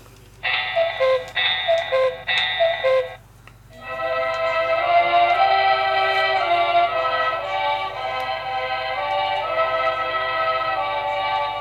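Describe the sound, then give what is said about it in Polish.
An electronic alarm clock with ten different alarm tones sounds: three quick bright beeping bursts, a short pause, then a louder, sustained warbling alarm tone that keeps ringing steadily, clear with no one talking. “I teraz on tu ma 10 różnych alarmów.”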